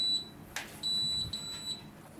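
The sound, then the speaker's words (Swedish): A stove gives off a shrill, high-pitched electronic beep: a short tone, a brief clatter, then a longer steady beep that pulses slightly before stopping, over a low background hum. “Ja, nu ska spisen väsnas också.”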